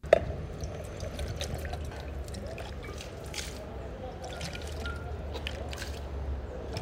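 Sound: water being poured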